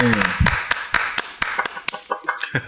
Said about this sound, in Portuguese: Palmas pro profissional aí, por favor. Parabéns.